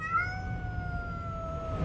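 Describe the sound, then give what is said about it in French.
Cats aboard a ship in a storm meow anxiously in one long, drawn-out, slightly falling wail that holds for nearly two seconds, fairly clear above a low, steady rumble. “Encore une sacrée tempête que nous allons prendre là, les petits chats.”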